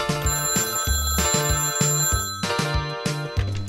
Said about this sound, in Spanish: No. No me va a ganar este aparato de mierda. ¡Hola! ¡Levanta el tubo y se corta! ¡Maldito teléfono con lo que cuesta!